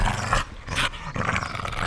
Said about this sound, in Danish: Det var naturligvis ikke det store problem hos dem, som havde lukket hunden inde i huset. Og hvor man bare hørte den vilde gøen og de krasne kløer inde bag hoveddøren